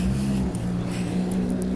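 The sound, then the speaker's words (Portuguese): Steady street traffic noise with a car engine rumbling as a vehicle passes, a continuous low drone filling the background with no one speaking. “barulho de trânsito, de pessoas, é a vida acontecendo, né?”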